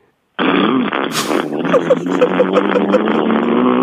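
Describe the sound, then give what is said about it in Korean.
A voice imitates an 850cc motorcycle engine with a sputtering, unsteady muffler, a continuous buzzing rumble with irregular pops and rattles, loud, starting abruptly after a brief silence. “머플러가 뭐 좀 불안정한 오토바이.”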